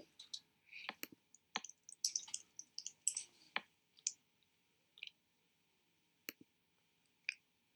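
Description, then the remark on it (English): Irregular bursts of sharp, crisp clicks from a computer keyboard, with quick clusters of keystrokes separated by short pauses, ending in a few isolated taps. No voices. “what, what happens when good when you type in good looking?”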